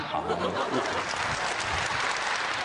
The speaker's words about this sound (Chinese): 是， 我给大伙儿学学啊 再。来来这个。 要是学得像，您鼓鼓掌。